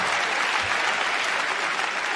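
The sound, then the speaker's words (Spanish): Steady audience applause fills the whole stretch, a dense, even patter of many hands clapping at once, fairly loud with no pauses. “No, no era para que aplaudiera, ¿eh? otro aplauso, pero escúchame.”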